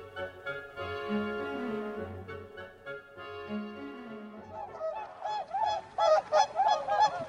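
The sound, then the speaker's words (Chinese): A flock of white swans honks at a lakeside. Layered nasal calls overlap throughout, with a burst of sharper, louder honks toward the end, and no voices present. “来到了这座湖畔，看见美丽的白天鹅群。”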